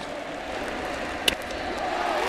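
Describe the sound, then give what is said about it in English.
A baseball stadium crowd cheers in a steady, sustained roar as right fielder Jose Bautista leaves the game, with one brief sharp crack cutting through midway and no clear voices standing out. “And listen to the crowd as Jose will leave.”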